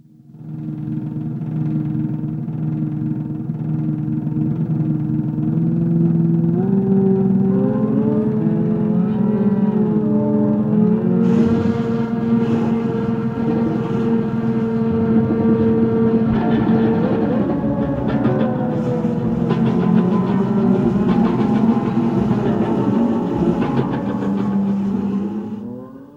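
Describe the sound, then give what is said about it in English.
Luigi Russolo's futurist noise machines from 1914 drone and groan together, their rough, engine-like tones sliding up and down in pitch over a steady, loud rumble that continues without pause and without any voices. “from 1914 with his noise machines, and I won't say the name of the song because it's just too obscure.”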